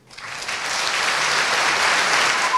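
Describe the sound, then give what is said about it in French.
Sustained applause from an audience after a speech urging fellow students to change their path, a dense crackle of many hands clapping that swells quickly and holds steady at a fairly loud level, with no voices standing out. “On a entendu les bifurqueurs appeler sous les applaudissements leurs camarades à changer de voix pour ouvrir qui des jardins potagers partagés, d'autres des brasseries artisanales, un discours disruptif”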